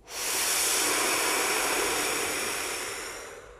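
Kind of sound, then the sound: human body sound, long exhale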